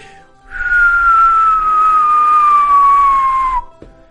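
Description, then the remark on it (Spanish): Someone whistles a long, loud, steadily falling tone for about three seconds, imitating the descending whistle of a bomb dropping, with no explosion at the end. “que es como una bomba que va cayendo.”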